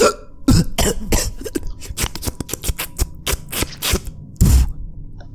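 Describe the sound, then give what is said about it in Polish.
A voice imitates someone choking behind a door, with a fairly loud run of harsh, raspy throat bursts and strained breaths, ending in one heavy gasp. No words are spoken. “Ciało upada na ziemię i słyszycie tylko takie duszenie się za drzwiami.”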